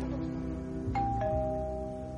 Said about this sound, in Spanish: Al rato suena el timbre.